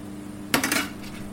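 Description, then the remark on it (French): About 400 grams of hot, coloured squash, cooked for half an hour, scooped out of a pan into a blender: a brief scrape and clatter of a utensil against cookware, lasting under half a second, with no one talking. “On va venir la mettre dans le mixeur.”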